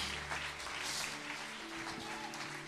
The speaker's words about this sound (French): donner une main d'acclamation au Seigneur pour sa gloire, pour sa grâce dans nos vies